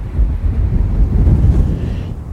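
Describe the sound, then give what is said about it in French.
A strong gust of wind buffets the microphone, producing a loud, continuous low rumble and roar that lasts the whole moment with no voices. “Oula, là, disons, Gros coup de vent là. Je sais pas si on m'entend. Je protège le micro le maximum.”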